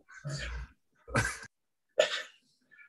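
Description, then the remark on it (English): A female dog gives three muffled, breathy woofs in her sleep, evenly spaced about a second apart, fairly soft, with no one talking. “Yeah, he's that's my one of the dogs barking in her sleep.”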